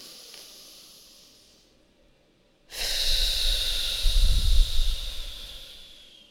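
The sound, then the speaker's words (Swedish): A deep, noisy inhale through the nose, taken while pushing the belly out to fill it with air, rising into a loud airy rush after a brief quiet pause following a softer earlier breath. “Andas in ordentligt med näsan. Spänn ut magen så att du fyller magen med luft.”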